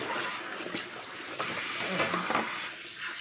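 running water

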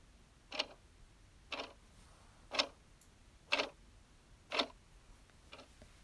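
clock ticking

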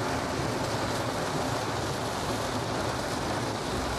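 heavy rain outdoors

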